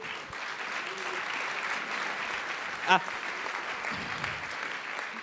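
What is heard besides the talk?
audience applause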